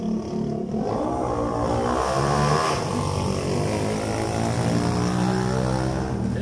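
A motorcycle engine roars loudly for several seconds as it passes, a steady buzzing drone with shifting pitch. No one speaks.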